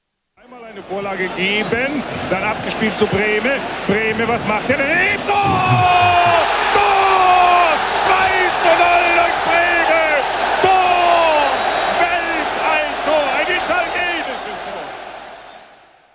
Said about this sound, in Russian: Правильно, это футбольный матч. Вы знаете, где они происходят, и что крики могут означать гол, а ликование болельщиков – это реакция на забитый гол.